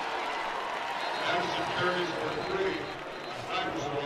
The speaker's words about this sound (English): Well, the applause seems to be coming from the well Boise State Boise State's moving back.